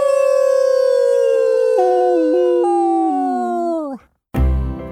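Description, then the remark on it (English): A person howls like a wolf: one long, loud howl that slowly slides downward in pitch for about four seconds, then breaks off before a short burst of noisy sound. “let's celebrate with our best and fiercest howl.”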